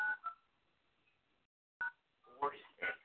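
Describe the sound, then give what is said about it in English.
A few short telephone keypad tones beep in an uneven sequence as someone dials a code, four, nine, two and pound, with a gap of near silence in the middle and a voice briefly mixed in toward the end. “Four six, no four six. Four nine two pound.”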